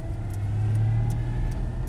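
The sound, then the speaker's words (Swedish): A car engine revs in first gear while driving from Tyresö Brevik toward Älmora, a loud, steady low drone with a sustained hum that holds throughout, with no talking over it. “Bara får vi varva ur på ettan.”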